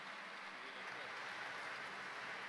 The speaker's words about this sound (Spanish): Les presento entonces al coro Guaymallén Coral. Un fuerte aplauso, por favor, para Guaymallén Coral.